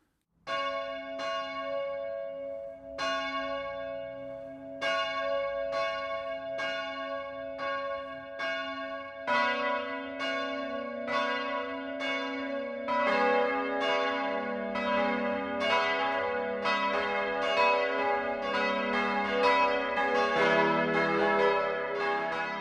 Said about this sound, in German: Das Mittagsläuten kommt heute von der katholischen Pfarrkirche St. Peter und Paul im oberpfälzischen Dalking.